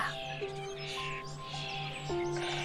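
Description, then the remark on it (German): A dense, continuous chorus of high, scratchy chirps and cheeps from baby starlings in a tree hole as their parents arrive with food, in sunshine, loud, with steady overlapping calls and no talking. “Und jetzt zwitschern die Babystare nochmal so laut.”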